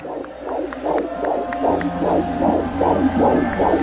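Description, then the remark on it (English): A steady, rapid heartbeat pulse thumps about eight times in quick succession over a low, constant hum, each beat soft and rounded, with no voices present. “I hear a pulse. Come on. The devil didn't kill you. I hear a baby. I hear a heartbeat.”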